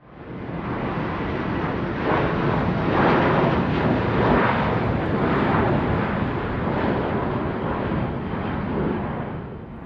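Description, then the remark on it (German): An airplane roars as it takes off, a dense, steady rumble and rush of jet engine noise that holds loud for about ten seconds with no one speaking. “Ich würde sagen, wir steigen wieder in den Flieger.”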